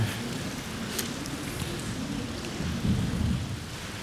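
Steady rain hisses and patters while a deep, continuous thunder rumble of a passing storm rolls underneath, swelling slightly toward the end. A few sharper drips stand out, and no one speaks.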